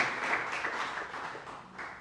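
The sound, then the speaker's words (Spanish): An audience at a Spanish-language sermon bursts into sustained applause in praise of God, a dense wash of many hands clapping at once that stays loud and steady before gradually thinning out, with no voices audible. “Dele fuerte el aplauso al bendito alabe su nombre si usted está entendiendo esta palabra de parte del Señor.”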